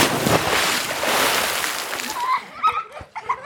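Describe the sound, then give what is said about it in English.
A loud, rushing water splash fills the first two seconds, then fades into bright, high-pitched bursts of children laughing and squealing. “New intro track, new little soundtrack transition there of the splash. I mean, it's on theme for splash and kids laughing.”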